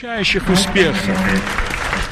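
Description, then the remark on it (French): A crowd on Charles Aznavour Square in Yerevan applauds as the coffin leaves the courtyard of Les Invalides, a dense, steady patter of many clapping hands lasting a couple of seconds, with a voice sounding over the clapping at the start. “En communion avec Paris, les applaudissements retentissent sur la place Charles Aznavour de Yerevan lorsque le cercueil quitte la cour des Invalides.”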